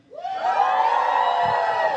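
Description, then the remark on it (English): A church crowd erupts into loud, sustained yelling and cheering in answer to the question of who likes Pepsi, rising quickly and holding steady for a couple of seconds, with many voices blending together. “This is you can yell in response and tell me this is indeed what you like.”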